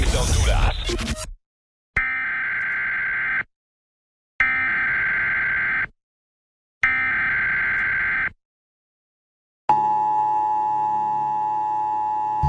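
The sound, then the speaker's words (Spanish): An emergency broadcast alert on the Exa Honduras radio station in Honduras, announcing the start of the daily purge: three identical harsh, buzzy electronic bursts with short silent gaps, then a steady, piercing two-tone alarm that holds loud until the end, after a brief noisy opening. “Este es un sistema de emisión de emergencia anunciando el inicio de la purga diaria autorizada por nuestros jefes aquí en Exa Honduras en el territorio hondureño.”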